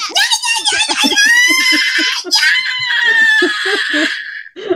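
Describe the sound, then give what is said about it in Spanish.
A person lets out a long, loud Mexican-style grito, a high warbling yell with trilled, yipping bursts that rises and sustains for several seconds before breaking off, followed by a brief breath. “Creo que lo, grité muy feo”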